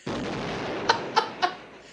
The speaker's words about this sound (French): Le son d'explosion